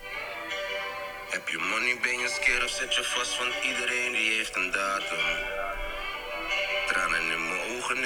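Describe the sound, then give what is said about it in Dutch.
A Dutch rap single plays: a rhythmic male vocal delivered steadily over a full, continuous backing beat, loud for the whole stretch with only brief dips. “we gaan heel eventjes luisteren, een paar seconden naar …”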